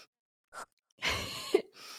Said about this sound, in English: Take a deep breath. Take a deep breath. Well, we're gonna do this one together.